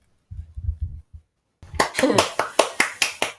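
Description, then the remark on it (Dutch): A few low muffled thumps, then a steady run of about eight sharp, bright hand claps at an even, brisk rhythm, fairly loud, like a small burst of applause. “Applaus de grote huis.”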